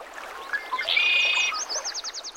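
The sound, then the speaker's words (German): Blue jays chirping in the late morning at Jack Kerouac's retreat on the coast of Big Sur: a steady, buzzy high whistle gives way to a quick, rhythmic run of sharp high-pitched chirps over a soft hiss of background noise. No one speaks. “Und jeden Vormittag zwitschern die Blue Jays.”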